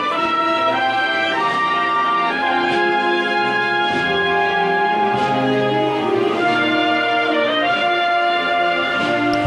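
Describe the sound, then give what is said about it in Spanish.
A procession band plays the slow, solemn march "Virgen del Museo" as the procession nears a street corner, loud, with sustained brass chords swelling over steady drum strikes and no voices. “Todavía quedaba un poquito para llegar a la esquina, por eso está sonando la Virgen del Museo que suena así de bonita.”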